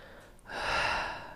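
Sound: deep belly breath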